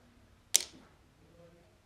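A single sharp click as a small light-green and white plastic Lego brick drops onto a hard surface, with a brief rattling decay.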